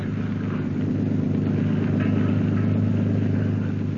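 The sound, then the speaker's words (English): A motorboat engine drones steadily as the craft is steered out to sea at night in fog, a deep, throbbing rumble that holds an even pace throughout, with a faint wash of water and wind over it and no voices. “Turk steers the motorcraft out to sea.”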